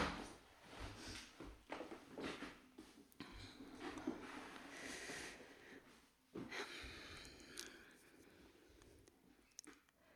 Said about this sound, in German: Okay, jetzt muss ich mal die Tür aufmachen. ein Schlüssel.